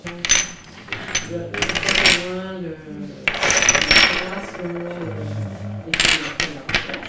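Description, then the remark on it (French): Well-fired fine ceramic sherds, handled by an archaeologist in Lyon, France, clink together in several bright, ringing bursts, fairly loud, with voices talking softly underneath between the clusters of knocks. “Alors, quand Eric il, travaille avec les paraffines, ça, ça, ça, sonne joli parce que c'est bien cuit”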